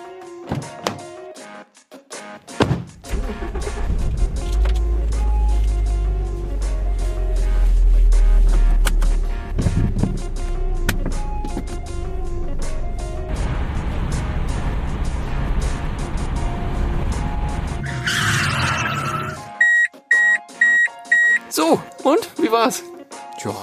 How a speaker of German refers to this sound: Gut, dann äh, machen Sie mal eben eine Probefahrt und dann hören wir uns gleich nochmal.